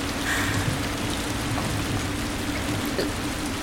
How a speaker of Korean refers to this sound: 밖에 비도 오고.